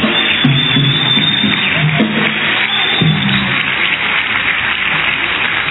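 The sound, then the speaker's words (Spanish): An audience applauds the Holy Spirit in a dense, steady wash of clapping that stays loud and even for about six seconds, with faint voices murmuring underneath. “Un aplauso al Espíritu.”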